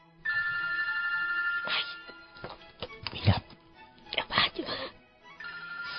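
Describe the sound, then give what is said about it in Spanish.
A cell phone ringtone plays a steady electronic melody in a theater for over a second, breaks off during a stretch of short rustling and voice-like bursts, then starts ringing again near the end. “Agradecemos mantener sus teléfonos celulares en silencio y no tomar fotografías con flash.”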